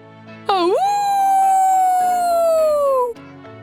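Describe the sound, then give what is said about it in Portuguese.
A single long howl from a wolf rises sharply, then holds and slowly sinks in pitch for nearly three seconds before cutting off. It's loud, over a faint low background. “Ao ouvir o uivo, todas as ovelhas se viraram na direção do lobo, que ficou vermelho e em silêncio.”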